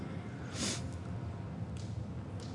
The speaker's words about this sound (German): Muss man Nase putzen.